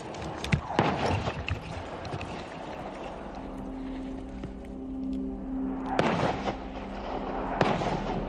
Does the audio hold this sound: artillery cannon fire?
yes